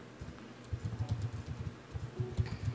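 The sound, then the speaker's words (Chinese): Rapid, irregular clicking of keys on a keyboard, a steady stream of soft taps with brief pauses, heard on its own without any talking. Someone is typing out text because it would not paste. “我现在就是在打字，因为它贴不过来。”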